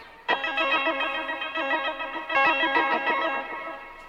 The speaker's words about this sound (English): Can I do that … pick tapping? Oh, like this? He, he does it like the, uh, like, uh, like this, right?